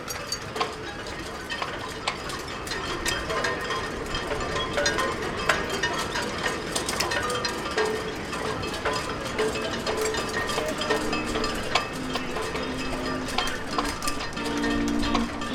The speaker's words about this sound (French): Ah, les drisses, hein? C'est les drisses qui claquent, ouais. Je sais pas. Euh, les drisses qui claquent au vent.